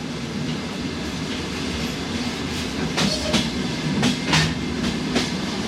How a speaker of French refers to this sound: Ça c'est un morceau qu'il a composé à partir de bruits de train.